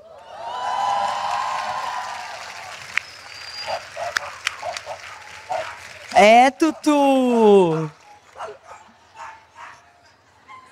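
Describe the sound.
Dogs bark loudly in a short burst of a few sharp, rising yelps, following a stretch of people talking and some faint background clatter.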